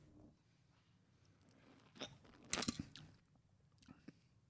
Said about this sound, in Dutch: Nou, ik zal het even openmaken en even ruiken. Ja, het ruikt naar een sterke drank. Zal ik een slokje nemen? Ja, neem een slokje.